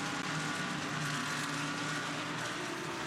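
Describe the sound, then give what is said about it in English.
A dense, continuous, loud roar of GT race car engines holds steady for several seconds as the cars power up Mountain Straight at Mount Panorama for the first time, just after the race has gone green. Nobody speaks. “And it's what, 8-10 car lengths as they head up Mountain Straight for the first time.”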